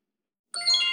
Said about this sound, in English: So each of us will take a turn with five minutes. You'll hear the timer go off when the five minute ends, and it sounds like this.